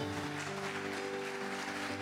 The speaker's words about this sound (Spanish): Fuerte el aplauso Señor. Aleluya.